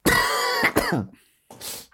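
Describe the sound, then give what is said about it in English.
A loud, harsh cough with a raspy, throaty rattle, followed after a brief pause by a shorter, breathier cough; no talking. “Um, Let's yeah, do some mirror work, and that cough will go away.”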